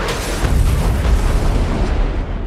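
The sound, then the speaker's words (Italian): A loud, sustained explosive boom with heavy low rumble and crackling debris, rolling on for a couple of seconds before tapering off slightly, with no voices present, as Tony's house is bombed. “Dopo aver apertamente sfidato il terrorista noto come il Mandarino, che stava terrorizzando i cittadini americani con una serie di video virali, la casa di Tony viene letteralmente bombardata.”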